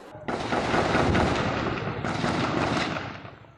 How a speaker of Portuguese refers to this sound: A intensa troca de tiros durou mais de uma hora e foi registrada por moradores. Tá batendo aqui. Segundo a polícia, o confronto começou quando policiais faziam patrulhamento de rotina e foram atacados por seis homens que estavam em um carro roubado.